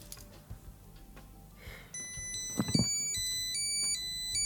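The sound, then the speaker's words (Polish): A key finder tracker sounds its alarm after its Find button is pressed to locate keys: a shrill electronic chime that starts abruptly and plays a repeating pattern of alternating high tones, with a brief rustle of handling partway through. “I mamy poszukiwanie kluczy.”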